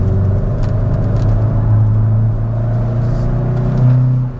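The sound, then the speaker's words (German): A car engine drones steadily at a low pitch, then its tone jumps higher near the end as the driver shifts down a gear without a throttle blip, the car's rev-match function having been switched off. No one speaks. “Wenn ich jetzt runterschalte, dann macht er das nicht.”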